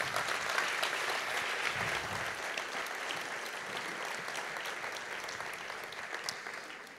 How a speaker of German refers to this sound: Das ist dein Applaus, das Dankeschön, dass du mit in dein Leben reingenommen hast.